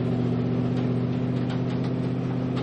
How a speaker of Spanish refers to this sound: En un coche Dora se acerca a la estación de ferrocarril que está atestada de soldados alemanes.